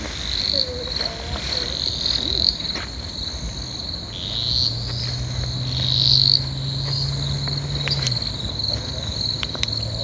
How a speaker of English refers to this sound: So that in the background is the, the cane toad call, hey? I ah, think, yep. I'm fairly certain it is.